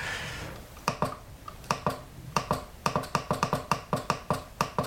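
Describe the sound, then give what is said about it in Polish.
Crisp plastic key presses, made gently on a braille display's navigation keys on its left and right sides (not the thumb keys), clicking in quick pairs and short bursts, about twenty sharp taps in all with no one speaking. “Delikatnie ależ wciskam oczywi- klawisz.”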